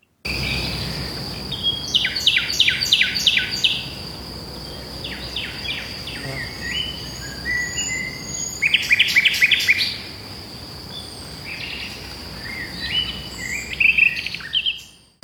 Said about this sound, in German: sich anhört und dass man fast gar nicht erkennen könnte, äh, dass es sich um eine Nachtigall handle, äh, wo also die Strophen abgebrochen werden und, und nicht richtig zusammengesetzt werden und man so eine Art Wortfindungsstörungen hatte.